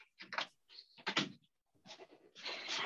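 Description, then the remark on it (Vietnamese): A door being closed: a few scraping, creaking bursts and a thin squeal, followed by a longer rattling, sliding sound as it shuts. No talking. “Cô cho em xin nửa giây em đóng cửa.”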